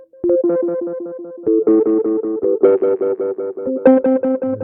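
A heavily processed, buzzy electronic tone, with its effects pushed to the maximum, pulses in quick repeated bursts, its harmonics thickening and brightening as it goes, with a gritty distorted edge. Loud, no voices.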